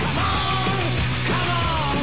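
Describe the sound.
A man's voice imitates a gas vendor's street cry, belting out a long, drawn-out, sing-song yell of "¡Salgan al gas!", loud and sustained for about two seconds.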